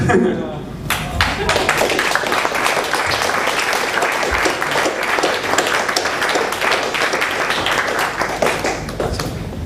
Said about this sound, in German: Du hast auch noch einen Applaus verdient.